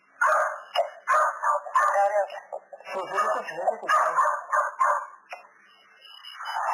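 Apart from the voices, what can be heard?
dogs barking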